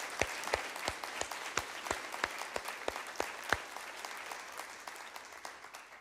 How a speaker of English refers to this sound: All right. Awesome. Thank you. There we go. Yeah. So let's give a round of applause giving God glory for this.